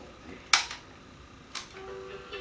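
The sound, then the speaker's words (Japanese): A cassette tape recorder holding a song recorded onto the cassette clicks sharply twice, about a second apart, as it is rewound, with a faint steady mechanical hum running underneath in otherwise quiet surroundings. “相変わらずカセットにこうやって録音して曲を、えー、ちょっと聴いてみましょうか。えーまあ、戻しど”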